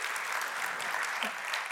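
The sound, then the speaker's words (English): An audience applauding one morning, a dense, steady wash of many hands clapping at once with no distinct individual claps standing out, holding an even loudness throughout. “And uh, also, yeah, you can clap. That's good. Go.”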